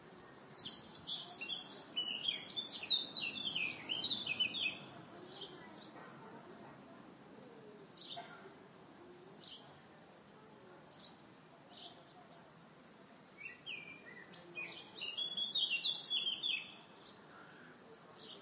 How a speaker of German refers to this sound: da gerade so ein schönes Vöglein zwitschert